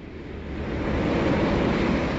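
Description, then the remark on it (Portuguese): Steady wash of gentle sea waves around a grand Roman ship sailing the calm Aegean Sea toward the capital of the Empire, a broad continuous swell of water noise with a faint breeze, rising slightly and holding even, with no voices. “Dois dias depois, como combinado, a família Lúcius, em companhia do amigo Caio Fabricius, já se encontra na grandiosa embarcação romana que navega pelas águas calmas do Mar Egeu em direção à capital do Império.”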